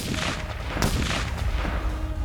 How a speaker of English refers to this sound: The gunshots awoke the other soldiers and the native porters.